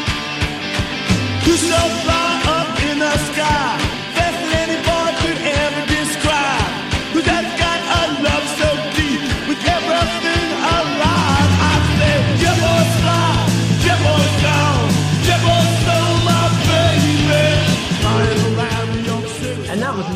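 A loud, driving early-1970s proto-punk rock song with raw shouted vocals over crunchy distorted guitars, pounding drums and a thick bass line, the full band playing at high energy throughout.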